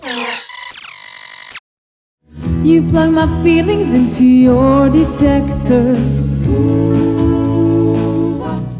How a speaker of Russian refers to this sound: Вы слышите песню в исполнении квартета